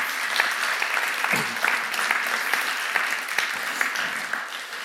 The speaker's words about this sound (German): Geben wir mal einen Applaus, ja.